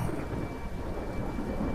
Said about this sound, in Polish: Gdy dotarłem do grobu, zaczęło kropić. Wiatr wył i szarpał drzewa, a czarne chmury rozmnożyły się nad nicowym i okolicą, zwiastując jeszcze potężniejszą burzę niż przed chwilą.